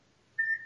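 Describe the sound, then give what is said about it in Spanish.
A single short electronic telephone beep, a steady mid-high tone lasting about a quarter second, clear against a quiet background with no voices. “Eso no es mío. Teléfono, güey.”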